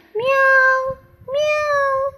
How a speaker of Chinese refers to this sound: 喵喵的？” 小老鼠高兴地接着说道：“对呀，对呀，你也认识它吗？”